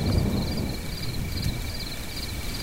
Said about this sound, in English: I lay there and a thunderstorm passed over. The front moved through with a breeze and I could hear the chanting chorus of crickets